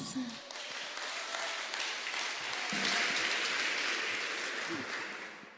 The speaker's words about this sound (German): Halleluja. Ein Applaus.